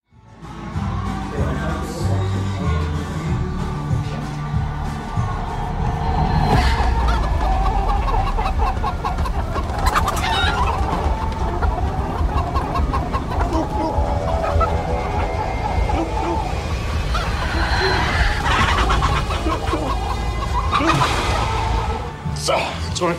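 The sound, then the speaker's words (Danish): About 25 hens cluck and squawk in a continuous busy chorus around a person crawling on the ground, with overlapping calls filling the whole stretch and voices talking beneath the flock. “Og det er faktisk en scene, hvor du skal kravle rundt på jorden og omringet af 25 høns.”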